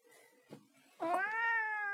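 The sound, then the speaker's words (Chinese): A cat named Maoqiu (Furball) lets out a single drawn-out meow, loud and tonal with a slightly rising then falling pitch, after a second of quiet rustling and a brief soft thump. “毛球。哦，行，来了， 来 行。 给大家叫一个。”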